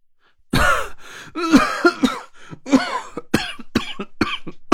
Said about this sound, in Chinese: 这一通咳嗽，差点把我的心肝脾肺肾都给咳飞了出来，眼泪鼻涕流了一脸。